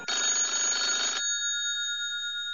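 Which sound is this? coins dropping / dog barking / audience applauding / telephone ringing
telephone ringing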